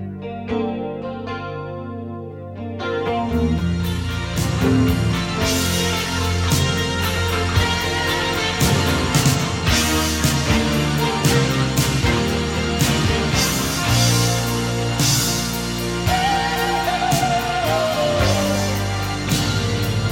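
A pop song plays steadily at full volume, with sustained chorused guitar and dense harmonic layers over a steady beat, opening with a brief quieter start before the full band comes in. No talking.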